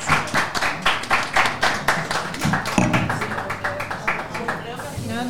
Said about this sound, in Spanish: Quiero un aplauso.